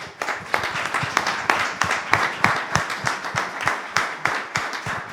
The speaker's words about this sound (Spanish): Quiero apuntar solo una cosa y es un aplauso y un abrazo muy fuerte para Pepe Lozano